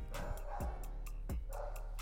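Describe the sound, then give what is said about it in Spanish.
A small dog yaps repeatedly in quick, uneven bursts over a steady low background hum, with no one talking. “hay un perrito ladrando.”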